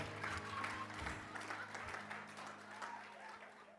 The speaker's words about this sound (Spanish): Dese un aplauso, dese un aplauso que acaben de subir